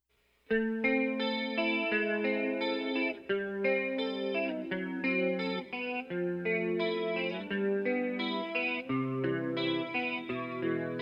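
A tender love song plays, its sustained chords shimmering with a chorus-like, processed instrumental tone, steady and moderately loud from start to finish with no talking over it.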